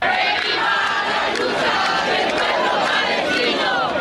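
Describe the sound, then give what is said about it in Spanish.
A large pro-Palestine protest crowd of Muslims in the Lavapiés district of central Madrid, Spain, chants "Allah is great" as a war cry against Israel, a dense, loud wall of overlapping raised voices that holds steady for the whole stretch without a break. “Al grito de Alá es grande, un numeroso grupo de musulmanes residentes en la capital española se concentraron clamando el grito de guerra contra Israel.”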